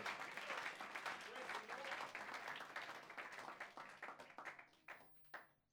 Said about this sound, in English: Put your hands together and give the Lord a big hand of praise the Lord.